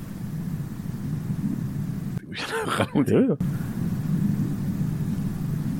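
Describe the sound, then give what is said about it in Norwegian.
Steady, deep brown noise from a track rumbles continuously, fairly loud, briefly cutting out midway while a short voiced sound is heard, then resuming unchanged. “….”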